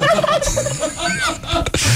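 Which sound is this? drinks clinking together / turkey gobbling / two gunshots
turkey gobbling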